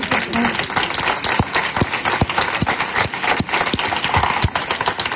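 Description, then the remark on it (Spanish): An audience applauds steadily for about five seconds, a dense wash of clapping with a few sharper, louder claps standing out above the steady patter. “Le podemos dar un aplauso por la que ha liado hoy aquí.”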